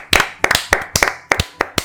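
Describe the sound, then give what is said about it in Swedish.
Sharp, bright hand claps applauding the winner of a contest, in a quick, fairly steady rhythm, some landing as doubled slaps, like a short round of applause from a small number of people. No one speaks. “En eh, applåd tycker ja.”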